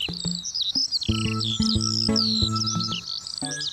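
Several birds chirp and warble in a continuous, bright chorus in Lala Land, with steady low musical tones pulsing underneath and no one talking.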